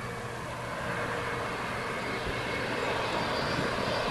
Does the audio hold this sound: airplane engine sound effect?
yes